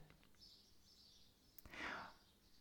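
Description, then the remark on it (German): Faint birds chirping outdoors by the sea under a blue sky in a quiet setting, with thin high twitters coming and going and a slightly louder chirp near the end, plus a single sharp click midway. “Und damit mit diesem Gedanken, mit dem Vogelgezwitscher hier und mit einem wunderschönen blauen Himmel und glitzernden Meer im Hintergrund möchte ich dich jetzt einfach mal ziehen lassen.”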